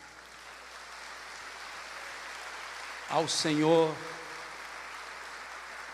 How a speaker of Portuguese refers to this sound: Então eu convido você para aplaudir a Jesus.